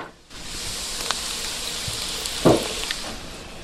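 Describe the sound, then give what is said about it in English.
A steady, loud hiss of shallots sizzling in a pan starts abruptly and continues throughout, with a brief splashing burst partway through as Sauvignon Blanc wine is poured into the hot pan. No one speaks. “I'm going to go ahead and pour in the wine.”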